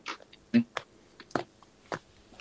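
A disc golf disc is flicked straight up into the air with just the wrist and caught, heard as several short, soft slaps and taps spaced irregularly, with a quiet background.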